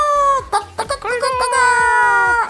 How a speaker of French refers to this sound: Et enfin, Cocorico